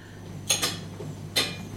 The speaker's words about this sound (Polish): Chodzi o to, że dołożyłam takie tłuczenia talerzy pod spód, zanim krzyczę o tych bułkach.